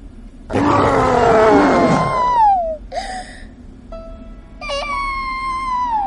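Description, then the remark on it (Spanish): The monster Sully gives a loud, rumbling roar for about two seconds to demonstrate scaring children, then it fades into a falling whine, followed by shorter, higher-pitched wails and shrieks. “Obsequianos con un gran rugido.”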